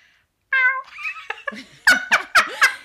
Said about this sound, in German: ja, ich habe die Katze. Ich kam gerade rein und hat sie mich anmiaut, weil sie freut sich immer, wenn sie mich sieht.